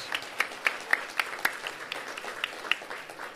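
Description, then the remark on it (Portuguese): A church audience applauds the Lord for the lives of returning sisters, servants of God from UFADIG, many hands clapping in a dense, continuous patter with a few sharper, louder claps standing out irregularly above the crowd. “Você pode aplaudir ao Senhor pela vida das Glória nossas irmãs.”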